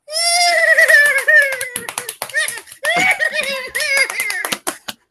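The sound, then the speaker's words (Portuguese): A person imitates a horse as a sound effect for Companhia dos Cavalos: a loud quavering vocal whinny followed by rapid tongue clicks like clopping hooves, then a second whinny and another burst of clicks. “mas você sabe que para falar Companhia dos Cavalos tem que ter sonoplastia.”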